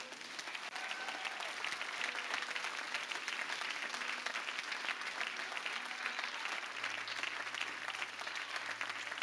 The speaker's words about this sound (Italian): Alleluia, fai un applauso al Signore.